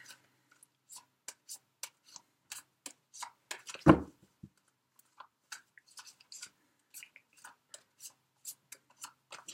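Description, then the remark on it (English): Fairly quiet shuffling of tarot and oracle card decks: a steady run of soft, irregular snaps and riffles with one louder thump midway, and no talking. “I have already shuffled all the decks Libra, but I'm just going to shuffle a little bit more as I tune into the energies for Libra.”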